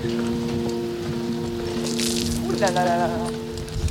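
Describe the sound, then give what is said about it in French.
Steady rain patters as a continuous hiss over a low, constant mechanical hum at the construction site of the Hermione, a wooden ship, with a brief voice rising near the end. “Ah, il pleut à faire.”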